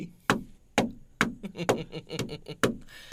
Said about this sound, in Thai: มันต้องไปเคาะประตูแล้วล่ะ บ้านนั้นนะดูท่าทางเนี่ยนะจะตกข่าวทำไมยังปิดประตูอยู่เลยนะ